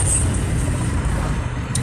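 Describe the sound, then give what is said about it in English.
Steady street traffic rumbles at a city bus stop at Lamar and Bellevue, a dense low roar of passing vehicles with a faint high hiss, like air brakes, near the end, and no voices. “But look, at the motherfucking bus stop, look, we on uh, Bellevue.”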